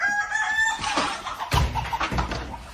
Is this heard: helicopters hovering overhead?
no